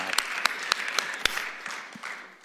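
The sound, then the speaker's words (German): An audience applauding a man who has just read a scripture passage, a dense patter of clapping with a few sharp, distinct claps standing out, steady and then gradually thinning toward the end. “Could you please put your hands together for David?”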